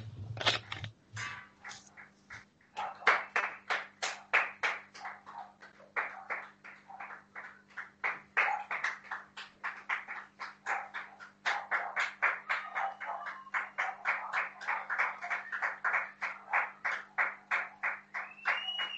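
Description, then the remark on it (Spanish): Steady clapping runs throughout, a rapid, uneven patter of hand claps that sounds subdued, with a low constant hum underneath and no voices. “Antes de empezar, tengo que ir a aplaudir un momentito.”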